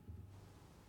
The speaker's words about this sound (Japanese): 音として僕ね、あのー、ノイズルームノイズ雑音を入れてるんですよ。